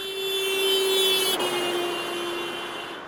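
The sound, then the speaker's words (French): A car horn blares continuously as a car passes a person standing still on a city-centre pavement, its steady pitch dropping noticeably midway as it goes past, showing the Doppler effect, then fading slightly as it moves away. “Si une personne est immobile sur un trottoir et qu'une voiture actionne son klaxon en passant devant elle, voici ce que la personne peut percevoir.”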